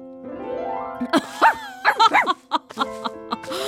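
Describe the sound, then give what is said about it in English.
A person imitates a dog, letting out a quick series of loud, yelping barks over a steady droning hum, with a few shorter yips trailing off at the end. “Well fetched, you are quite good at being a dog.”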